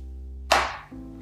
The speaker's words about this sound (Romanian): Acum, uh, noile uh, portofele vor veni cu un magnet un pic mai puternic, dar și un sunet, o vibrație haptică în momentul în care acesta se atașează de, de telefon. Al meu sună cam așa.